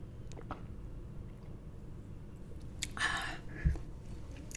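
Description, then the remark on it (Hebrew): Someone takes a quick sip of water with aloe vera, their third cup of the morning, a short slurpy burst followed by a soft thud like a cup being set down, against a quiet low hum with no talking. “אם שמעתם את הלגימות שלי, אתם מבינים כמה אני...”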